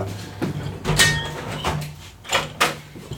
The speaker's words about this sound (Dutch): Ik maak even de raam dicht, want anders dan, uh, horen de bakken de hele tijd.